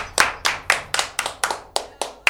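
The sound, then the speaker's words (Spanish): Hand claps ring out in a steady, even rhythm, about nine sharp crisp claps in just over two seconds, sounding like a single person or a small group applauding to welcome a magician, with no talking. “Por favor, un fuerte aplauso.”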